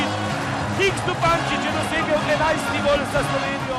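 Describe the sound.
Ice hockey spectators in the Tivoli hall chant numbers aloud together, counting the goals from zero to 11 and demanding another goal as Slovenia leads Estonia 11–0: a dense, steady roar of many voices rising and falling in rhythmic surges.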